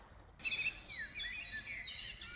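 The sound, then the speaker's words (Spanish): Birds sing in a steady stream of high, bright chirps and whistled trills, several calls overlapping, with a faint low background hum and no voices. “Además de, claro, escuchar el ruido del mar, dar paseos por el bosque o el cantar de los pájaros,”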